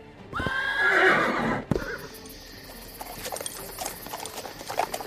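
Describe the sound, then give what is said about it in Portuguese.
A horse lets out a loud, drawn-out whinny, then steady hoofbeats clip-clop along at a walking pace, without any voices. “Vocês saem pelos portões e vão cavalgar à noite se distanciando, é isso?”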